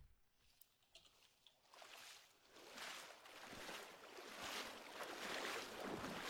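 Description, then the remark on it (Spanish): Someone wades through water, with repeated sloshing splashes that start quiet and sparse and grow louder and steadier, with no voices. “es alguien caminando en agua.”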